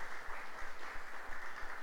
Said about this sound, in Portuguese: Dá uma salva de palmas a Deus, porque nada, nada